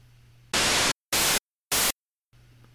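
Three loud bursts of harsh, hissing white-noise static, synthesized from random values, each roughly a third to half a second long, separated by dead silence, with a faint low hum before and after.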